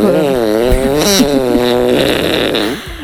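A long, loud, buzzy fart sound effect, used to mark fails and flops, that wobbles in pitch for about three seconds, sputtering and rising near the end, with no talking.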